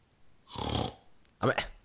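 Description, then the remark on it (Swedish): A person imitates a hungry pig with two loud, rough grunting snorts, the first longer and breathy, the second shorter and gruff. “Vadå speciell gris? Hur låter han när han är jättehungrig?”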